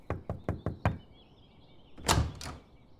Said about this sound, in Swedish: Men att döma av ansiktet skulle hon hellre ha kallat honom fisk och knackade på dörren.